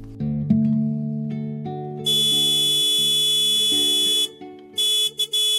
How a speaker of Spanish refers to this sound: Ya vamos, espera un momento. Deja de tocar esa bocina que van a despertarse todos los vecinos.